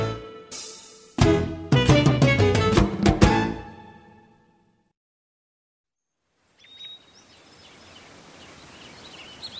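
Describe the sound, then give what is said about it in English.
After a bright run of chiming tones and a short silence, soft outdoor ambience fades in with faint, high bird chirps and twitters against a gentle hiss. No one speaks. “The birds were singing.”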